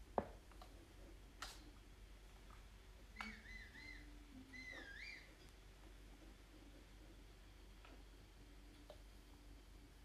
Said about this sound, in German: Dann müssen wir jetzt einmal kurz aufs Pferd warten. Das habe ich nämlich gerade gepfiffen, das kann jetzt eine Weile dauern.